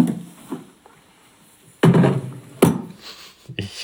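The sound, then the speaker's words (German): A braille typewriter is unpacked and set down in the Startbraille Typewriter Simulator software: light rustling and small knocks, then two heavy wooden thumps and a final clunk as the machine lands on the table. “Jetzt wird die Punktschriftmaschine ausgepackt und auf den Tisch gestellt.”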